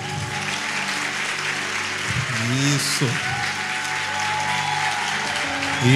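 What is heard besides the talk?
audience applause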